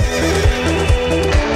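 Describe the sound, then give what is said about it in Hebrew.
A horse neighs loudly, its voice wavering up and down, over a steady rhythmic thumping that may be hoofbeats or a beat underneath. No one speaks. “שהסוסים, הסוסים שלוקחים אותנו למקום הטוב יותר, הם הצלילים.”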